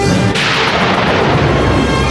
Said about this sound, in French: La foudre, maîtresse du tonnerre, mène la danse macabre. L'apocalypse.